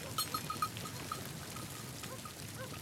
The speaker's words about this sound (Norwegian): Det her er lyden av forsinkelse. En reinflokk trør over myrene akkurat der de vil bygge datasenteret.